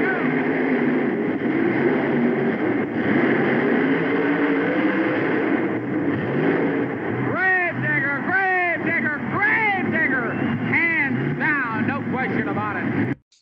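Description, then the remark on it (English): Loud monster truck engines, including Awesome Kong and Digger, roar continuously during a monster truck race in St. Paul, then rev hard in a series of rising, whining surges through the second half, with an announcer's voice partly audible beneath the din. “Push the pedal to the metal. Turn it loose. Power against power.”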